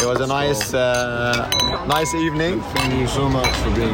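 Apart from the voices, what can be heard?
glasses clinking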